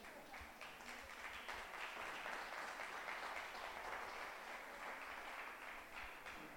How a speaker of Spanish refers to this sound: Amén. Gracias, gracias allá por el aplauso, ¿no?